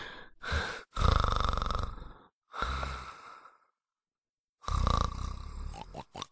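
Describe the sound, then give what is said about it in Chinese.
A voice imitates a father snoring asleep in bed at night: four long, rasping, throaty snores separated by short pauses, fairly loud, with a rough low rumble and a breathy, sighing quality. “说完，李道正继续打着呼噜，睡得那叫一个香甜。”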